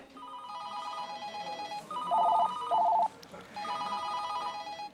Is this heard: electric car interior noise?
no